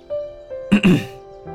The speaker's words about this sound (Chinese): 他掩饰般的低下头，清了清嗓子，认真道：